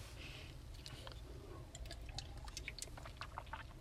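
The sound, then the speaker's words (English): Someone takes quiet sips of water, with small wet clicks and soft swallowing sounds over a low steady hum, and no talking. “Drinking a little water.”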